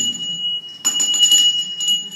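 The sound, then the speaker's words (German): Bells ringing with sustained, shimmering metallic tones, broken by a few louder clanging strikes that swell and fade. The peal is fairly loud and steady, and no one speaks. A bell rung during a church service. “dass wir nicht nur brav reden sollen, sondern dass wir uns auch ruhig mal die Glocke läuten lassen sollen”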